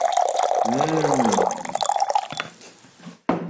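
So-called Corona tea poured into a cup right up at the microphone: a steady, splashing stream whose tone rises as the cup fills, tapering off after a couple of seconds and ending with a short knock.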